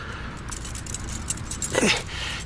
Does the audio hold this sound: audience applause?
no